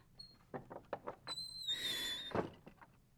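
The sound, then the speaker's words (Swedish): The door of an empty farmstead creaks on its hinges as it sways back and forth: a few soft knocks and rattles, then a drawn-out, high-pitched squealing groan as it swings, ending in a duller thud. “dörren svajar lite hit och dit medan den knarrar.”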